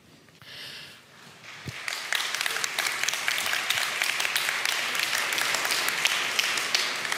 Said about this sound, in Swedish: det var verkligen det var den lamaste applåden.